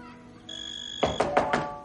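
Four firm knocks on the front door of a house, made by a messenger, land in quick, even succession, loud, over a faint steady high-pitched tone that lingers in the background.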